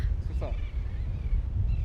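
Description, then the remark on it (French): A brief, harsh royal tern call rings out once near the start, over a steady roar of strong wind buffeting the microphone, at the tip of a sandbar at the mouth of the Saloulou river facing the Atlantic; faint cries may follow. “Ce sont les cerfs royales, ce sont des oiseaux euh, dont la calotte est noire.”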